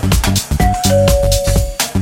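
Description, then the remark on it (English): A doorbell rings with a steady electronic tone, a second slightly higher tone overlapping the first for about a second, heard over loud, rhythmic music with a heavy beat. “I can't get in somebody check the bell. Let me check the bell.”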